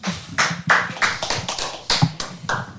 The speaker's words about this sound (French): Et on le salue et on l'applaudit très fort.